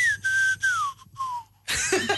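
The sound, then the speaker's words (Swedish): A person whistles through a gap in their teeth left by a tooth that grew the wrong way: a few clear, thin notes that slide gently downward in short phrases, before a burst of louder noisy sound cuts in. “Du visslar utan att det syns att du visslar.”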